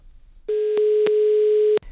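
A steady, buzzy telephone tone of an incoming phone call holds at one pitch for just over a second, broken by a couple of faint clicks, then cuts off abruptly. No one speaks.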